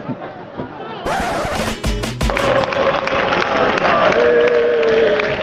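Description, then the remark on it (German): A football stadium crowd in Madrid erupts into loud, sustained cheering at the final whistle as Fuenla win 1-0 against Malaga, after a quieter start, with a few heavy thumps early on and a steady roar of voices continuing to the end. “Hitzige Stimmung, aber auch guter Auswärtssupport von Malaga.”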